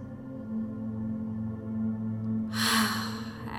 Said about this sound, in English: And before we begin, let's take three deep breaths together to let go. Breathing in through the nose, exhaling through the mouth. Breathing in through the nose.